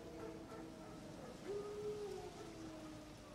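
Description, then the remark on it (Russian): Drawn-out howls from wild dogs, a few long wavering tones rising and falling over a steady background hiss, faint, with no one talking. “Волки? Хотя нет. Дикие Привет, собаки.”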